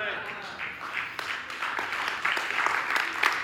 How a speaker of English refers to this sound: And you notice the 25% clapping proves my point. So thank you for helping me preach.